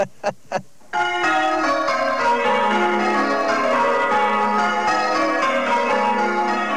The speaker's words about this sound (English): Tuesday night means change ringing practice on the row of six bells at Barton St. David's, a typical village church set in the heart of England's rolling green West Country.